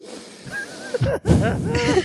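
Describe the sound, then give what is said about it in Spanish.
A person imitates heavy, loud breathing, with a few noisy, wheezy breaths pushed in and out, one after another, and a brief pause in the middle. “Pero además, respirando así.”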